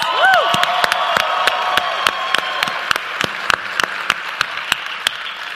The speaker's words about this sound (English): And there's people next door behind us as well, about another few hundred. So should we clap really loud so they can hear us through the wall as well?